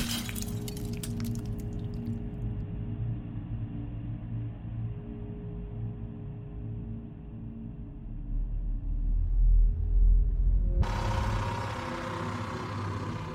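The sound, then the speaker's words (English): A sharp crash of breaking glass as a face strikes a shattered mirror in a bedroom, opening with scattered tinkling shards, then fading into a low, heavy rumble that swells before a second bright, noisy burst near the end. “Then, compelled by a cold, invisible force, my face cracked against the broken glass.”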